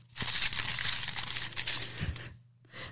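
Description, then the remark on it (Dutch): Torn-up slips of paper written out as lots crinkle and rustle steadily for over two seconds in a busy, crackling burst as they are drawn for a Bambock giveaway, then pause briefly before a shorter rustle resumes. A low hum sits beneath. “En die hebben we allemaal eh, opgescheurd en in loges uitgeschreven. En die eh, gaan we nu trekken.”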